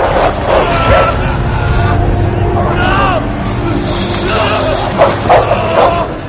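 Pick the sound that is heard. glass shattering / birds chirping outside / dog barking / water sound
dog barking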